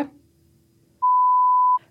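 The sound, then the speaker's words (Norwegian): A single steady electronic censor bleep covering a spoken name, at a clear mid pitch, lasts under a second, loud and flat, cutting in abruptly after a quiet stretch of low hum and stopping just as suddenly. “Jeg hadde jo ikke hatt noe jobb hvis jeg ikke hadde pipet ut.”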